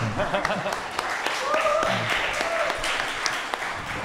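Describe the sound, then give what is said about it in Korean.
A round of applause for a sharp remark: many hands clapping in a dense, steady patter for about four seconds, with a few sharper claps standing out and voices mixed in underneath. “굉장히 굉장히 날카로운 지적입니다. 박수 한번.”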